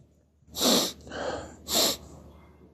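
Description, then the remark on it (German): Two hard, forceful sniffs to clear a blocked nose, snorting air in through a congested nose, with a rougher wet breath between them; no one talks. “Ich muss mich mal, muss ich mal frei schniefen.”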